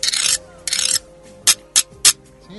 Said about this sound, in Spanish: un idiófono, ¿sí? Eh, de percusión directa, que son las vieiras, que son unos moluscos.